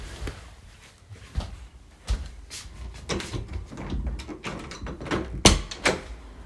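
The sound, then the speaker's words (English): A door being opened as someone enters a room: a run of irregular clunks, rattles and sharp clicks over several seconds, with a couple of louder knocks near the end and no talking. “That's me getting in my room.”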